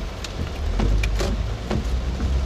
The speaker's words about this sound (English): Gotta pay attention out here in the rain, Georgians.